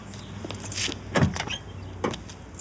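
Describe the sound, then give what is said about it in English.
A man getting into his car: a rustle of movement, then a solid thud as the door shuts and a few softer clunks inside the cabin, with no talking. “He gets into his car and then boom, it blows up.”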